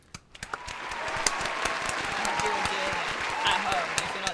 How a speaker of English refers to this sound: Hey! Give ourselves a round of applause.